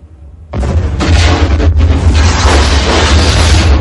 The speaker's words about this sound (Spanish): La explosión barre toda la planta. Una bola de fuego sube por el hueco del montacargas.